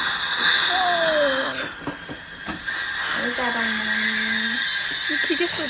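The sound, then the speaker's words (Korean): At a dental clinic, a dentist's high-pitched drill whines in steady bursts over a constant hissing suction drawing out water, with a child patient's voice briefly sounding underneath. “그 물 빼는 소리죠.”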